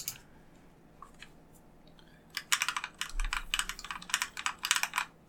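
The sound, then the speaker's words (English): Rapid typing on a modded mechanical keyboard, not resting on a desk, starts after a quiet pause: a steady stream of crisp clacky keystrokes with uneven rhythm and no voices. “I recently got into the rabbit hole of mechanical keyboards, and so I decided to completely mod out my keyboard”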